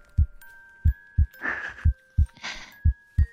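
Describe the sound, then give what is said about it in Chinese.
A steady heartbeat, heard while being held in an embrace: deep, muffled thumps in lub-dub pairs, about two beats per second, over a faint constant hum, with two soft breathy rustles between the beats. “是抱着你，让你听我的心跳声。”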